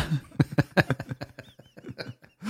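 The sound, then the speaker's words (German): A voice imitates salt being shaken from a salt shaker: a quick run of short hissing, crackly bursts that loosen into softer, squeaky little clicks before trailing off. “Kannst du mal einen Salzstrahl machen, wenn das Salz ausgeschüttet wird?”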